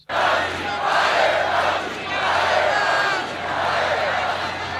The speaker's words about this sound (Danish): Han sagde, lad mig vente til efter valget, da publikum råbte sådan her.